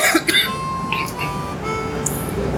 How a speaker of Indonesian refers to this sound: terus kemudian nih gue batuk-batuk selalu